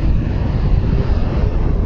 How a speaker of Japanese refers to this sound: 本当にものすごい大きなトラックが今ね走り抜けていきました